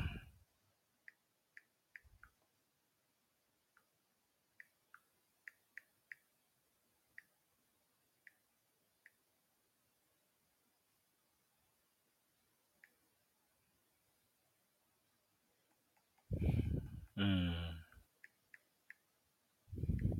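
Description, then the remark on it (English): Soft, irregular keyboard clicks tapping out scattered keystrokes with pauses between, followed by a brief louder rustle or thump, then a few more quiet clicks. “I'm typing my little fingers out.”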